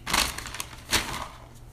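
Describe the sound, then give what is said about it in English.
A crumpled, greasy paper McDonald's bag holding a Big Mac, from the McDonald's on South College Road, Wilmington, crinkles and rustles, two louder crackling bursts standing out from a steady papery scrunching, with no voices. “Now we got to start out first with the bag, um,”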